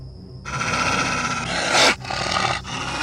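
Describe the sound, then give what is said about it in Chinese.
A dog named Zhenke, frightened by the smell of a coyote near a tent, makes tense, raspy growling noises that swell into a louder strained cry, falling in pitch midway, before the rough sounds carry on; no one speaks. “真克被狼的味道吓到了，发出了害怕的声音。”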